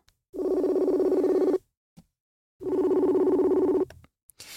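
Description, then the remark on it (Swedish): A phone ringback tone sounds twice while calling the speaker's mother, each long buzzing ring lasting over a second with a pause between, clear and steady, followed by a brief click at the end. “Se om jag ringer upp henne, det blir jättekul.”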